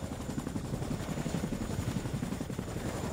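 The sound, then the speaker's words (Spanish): A Chinook helicopter's rotors beat in a rapid, steady chop, a dense low thudding that stays constant and fairly loud throughout, with no voices over it. “Es un helicóptero Chinook.”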